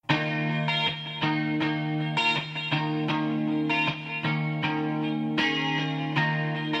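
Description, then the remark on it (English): A 1987 pop rock hit song plays loudly and steadily, with chorus-drenched guitar chords struck in a regular rhythm and sustained synth-like harmonies, no voices standing out. “That is a song that you uh, probably remember if you were listening to radio at all in 1987.”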